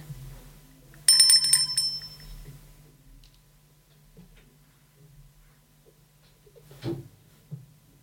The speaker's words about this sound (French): Chaque fois quand tu entends la cloche sonner, tourne la page.